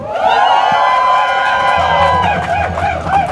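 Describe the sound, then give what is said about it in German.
A large crowd of demonstrators cheers and whoops loudly and continuously, many voices rising together over what sounds like sustained clapping, the roar staying strong for a few seconds before starting to break up. “Deswegen möchte ich mit einem donnernden Applaus”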